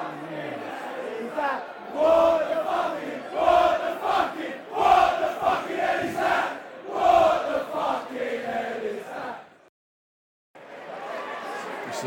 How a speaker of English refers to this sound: The uh, bloke with the um, sombrero has brought an old school rattle, which is causing a lot of um, cheering to our left, dear listeners.